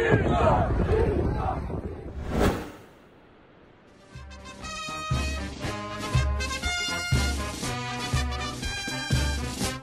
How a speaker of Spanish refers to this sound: Finalmente, el primero de enero de este 2021, en plena crisis por la pandemia del COVID-19, Bolsonaro se lanzó al mar en una playa paulista con la camiseta número 10 del Santos, y los bañistas se aglomeraron a su alrededor y lo vitorearon sin cesar.